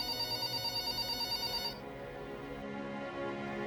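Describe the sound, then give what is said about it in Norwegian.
A telephone rings at an American Airlines office with a call from a flight attendant. It rings with a rapid, trilling electronic bell, pulsing evenly for nearly two seconds before cutting off, leaving a low hum of background noise. “Men på et av American Airlines sine kontorer har en ansatt fått en telefon fra flyvertinne”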